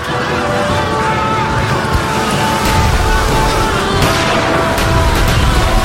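Booming cannon fire from Japanese warships firing their heavy cannons: a loud, continuous rumbling roar with several sharper blasts bursting through it, dense and chaotic throughout.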